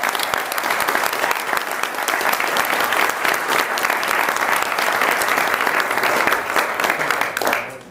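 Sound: audience applause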